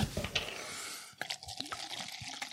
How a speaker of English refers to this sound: That's a big pour, too.